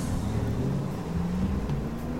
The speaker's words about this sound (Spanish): Cuando llegó al último escalón, escuchó el ruido de un motor de auto alejarse.